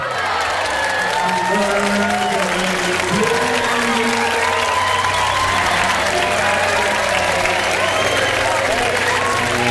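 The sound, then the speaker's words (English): A crowd applauds and cheers loudly and continuously, with dense clapping, scattered whoops, and many voices shouting together in a lively, celebratory burst that fills the whole stretch. “And nope, all done. That's enough. No more celebrating.”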